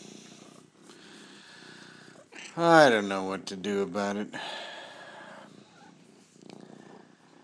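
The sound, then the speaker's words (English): A female cat purrs steadily, a low continuous rumble running through the whole clip, while a person speaks softly over it. “She was purring, but not meowing.”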